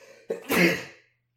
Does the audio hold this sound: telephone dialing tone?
no